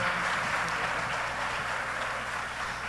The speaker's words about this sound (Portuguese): mais uma vez, palmas para os dois, nosso painel.